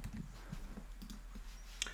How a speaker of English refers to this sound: Tiger Woods. I'm clicking on his his player name here